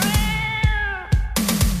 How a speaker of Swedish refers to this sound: vi får hit katten nu då. Ja, Okej, okay, nu kommer katten. Här Oj, kommer den! Wow. Den kommer! Ja. ja, nu kommer den!